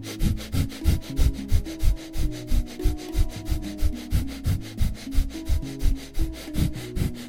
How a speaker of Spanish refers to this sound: La idea es que no sea rápido en exceso ni tampoco tan lento y lo vamos a mantener durante un minuto. ¿sí? Vamos, arranquemos. Un minuto de respiración acelerada.